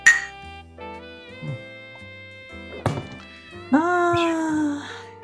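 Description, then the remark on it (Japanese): Glasses clink together in a toast, a few sharp taps spread out, each leaving a long bright ring that lingers. Voices sound briefly near the end. “乾杯しようか。乾杯。乾杯”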